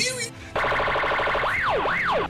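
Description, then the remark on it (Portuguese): A loud electronic siren signal runs through a rapid warbling pulse and then two sweeping rising-and-falling wails, lasting about two seconds with no one talking over it. “É, só pra deixar a galera avisando aí, vai ter outro sinal de sirene agora, vai ter um.”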